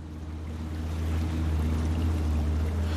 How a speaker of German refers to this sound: Aha, jetzt verstehe ich, warum also Christine jetzt da rausfährt mit dem Boot. Das ist jetzt wirklich so etwas, gibt es eigentlich fast gar nicht, dass keine Schiffe in diese Bucht hineinfahren.